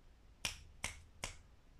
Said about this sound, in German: Das hast du jetzt auch gehört, das Schnipsen.